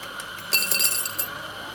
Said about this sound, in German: Die junge Frau an der Kasse ist besonders freundlich und ich werfe ihr ein paar Münzen als Trinkgeld in das Glas, das vor ihr auf der Theke steht.